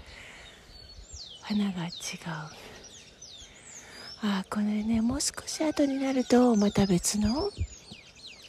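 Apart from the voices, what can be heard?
small birds chirping outdoors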